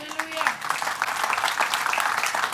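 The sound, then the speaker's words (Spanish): A church audience breaks into sustained applause for the Lord during a morning sermon, dense rapid clapping from many hands holding steady throughout, with a brief voice trailing off at the start. “De un aplauso al Señor esta mañana”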